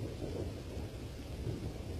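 Heavy rain pours down in a dense, unbroken roar with a deep low rumble beneath the hiss, large raindrops falling into standing water in a courtyard and raising bubbles, holding steady throughout with no voices.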